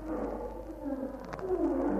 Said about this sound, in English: Then there's a shattering roar Silhouetted against the skyline, Bertie sees a dozen or more lions trotting towards the knoll.